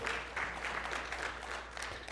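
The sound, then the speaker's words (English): Steady audience applause in a church for its pastor, a dense patter of many hands clapping at once, holding a fairly even loudness for a couple of seconds with no voices standing out. “All these unexpected applause every once in a while.”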